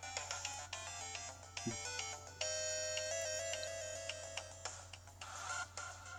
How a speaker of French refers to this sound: Ah oui, la musique de la, grotte éclair, putain, c'est trop bien ça. Non, pas de la grotte éclair, des, terres, euh, terres de foudre là, je sais plus. Écoute cette musique, c'est génial.